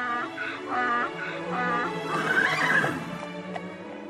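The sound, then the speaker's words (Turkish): A horse whinnies in a long, quavering neigh with harmonic bursts that rise to a louder shaky peak, then trail off; clear, with no one speaking. “İşte o günlerin içinde bir köylünün bir atı ve bir eşeği varmış.”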